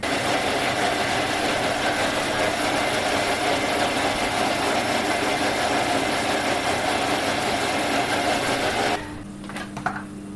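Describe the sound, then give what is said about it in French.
A fairly efficient blender whirs steadily at high speed, a loud, dense motor roar blending a squash purée with butter and salt, no water added, for about nine seconds before it switches off, leaving a low hum and a few small clicks. “Donc là, on a mixé euh, pendant 45 secondes. Un mixeur qui est euh, assez, efficace.”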